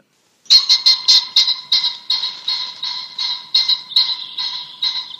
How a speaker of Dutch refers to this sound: Ja, we willen het nou hebben over de fazant.